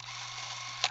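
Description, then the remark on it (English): A film camera runs at 24 frames per second with a steady mechanical whir and a low motor hum for about a second, ending in a short sharp click as it stops. “You can shoot 18 frames per second, which is that sound, 24 frames per second,”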